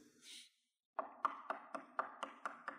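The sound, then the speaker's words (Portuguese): A brief breathy rush, then a steady run of about eight firm knocks on a door, evenly spaced, each one sharp with a hollow wooden thud, as Peter knocks at the door of the house of Mary, mother of Mark. “Pedro chega e bate na porta.”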